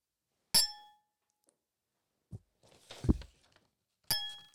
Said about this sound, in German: Ähm, Prost. Zu, ey. Kommen wir dann zu Anstoßen, weißt du, dass man es bei deinem Mikrofon hört? Oh ja, genau.